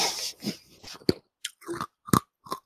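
Chewing with sharp crunches, a hard candy being bitten and ground between the teeth in irregular bursts, loud, with brief pauses between bites and no talking.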